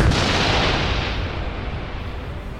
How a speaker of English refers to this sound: And now that I've arrived, I'm going to spread both of my arms out wide, pause briefly, wiggle my fingers and let the magic flow to the fingertips through my fleece and clap them together for a big thunder wave.